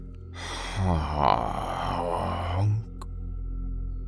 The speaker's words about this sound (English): That sounded like a death rattle, the sort of thing you'd hear someone say when it's their final breath before passing on.